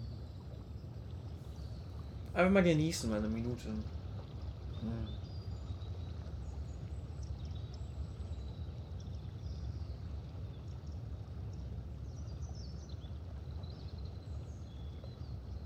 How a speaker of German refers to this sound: Mmh, angenehm. Mmh. Oh, ra oh Rauschen. Autos, Flugzeug, hm. Wasser.